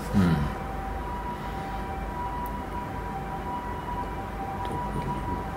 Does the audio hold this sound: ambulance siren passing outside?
yes